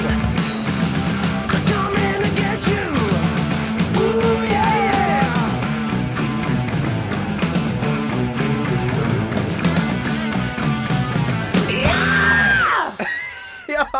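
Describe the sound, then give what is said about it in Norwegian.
A loud, dense rock song pounds along, then near its end a singer lets out a long, rising, strained scream before the music cuts off abruptly. “der kom det kom skriket.”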